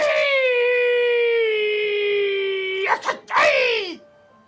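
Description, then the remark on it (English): A person's voice imitates a long, drawn-out creature howl, one steady sustained wail that slowly sinks in pitch, then breaks into a couple of wavering rising and falling cries before cutting off. “And you hear this creature off in the Run. distance, just kind of let out a great like howl.”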